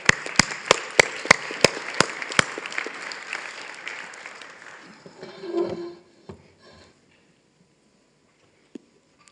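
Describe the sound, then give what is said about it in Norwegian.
A church audience applauds loudly for the people standing, with a dense wash of clapping and several sharp, loud claps standing out. The applause thins and fades out around six seconds, leaving a few isolated knocks and near silence. “La oss gi dem en skikkelig klapp.”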